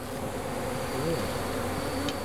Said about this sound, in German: Er zeigt mir seine 10 Bienenstöcke. Darin leben mehr als 70.000 Bienen.